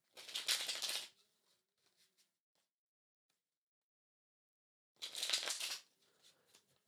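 Tarot cards being shuffled in two quick, crisp riffling bursts separated by a few seconds of quiet, with a few faint taps and flicks as cards are handled and a card is picked in between; the card picked is the Six of Swords.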